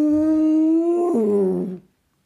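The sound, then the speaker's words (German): A cow moos once, loud and drawn out, holding a steady tone for a couple of seconds before sliding down in pitch and trailing off, with nothing else around it. “Kuh mute so laut, dass Jannis erschrocken auf seinem Hintern landete”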